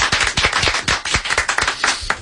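A short burst of audience applause, many hands clapping in quick, irregular, overlapping claps, steady and fairly loud throughout with no voices.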